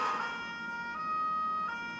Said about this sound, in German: Oh Gott! Ihr hört es vielleicht an meiner Sirene und an dem Knallgeräusch.